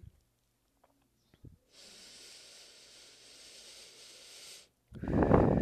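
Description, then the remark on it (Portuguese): A long, airy inhale lasting about three seconds during a breathing exercise, followed after a brief pause by a louder, fuller exhale. The breathing is clear, with no talking. “Respira novamente e solta.”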